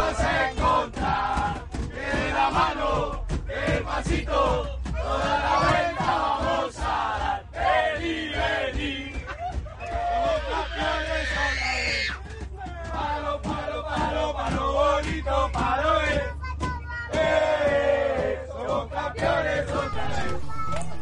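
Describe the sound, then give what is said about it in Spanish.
A dense crowd of fans on a bus shouts and chants together, celebrating with the players and the trophy. Voices are loud and overlapping with rhythmic bursts, over a steady low engine rumble. “Era una locura enorme que no hay manera de describir, solo para que escuchen. Algo así era el ambiente que, traían los jugadores con la tan consentida corona.”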